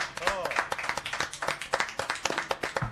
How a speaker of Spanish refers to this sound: siendo las 11 y 45 minutos, y les pido un aplauso muy fuerte.